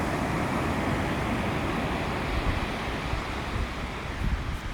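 Steady, broad rushing of ocean surf mixed with wind buffeting the microphone, continuous and fairly loud throughout with no voices, like standing at the shoreline on a breezy day.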